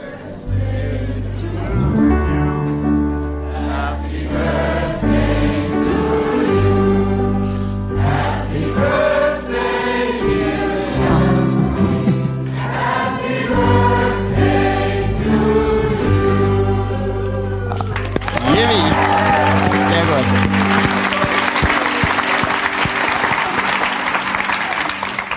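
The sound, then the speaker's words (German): A cinema audience of about 500 people sings Happy Birthday together in a loud, sustained melody for about eighteen seconds, then breaks into a burst of applause and cheering. “Äh, sie glaubt 500 Leute im Kino und sie hier singen dir jetzt Happy Birthday.”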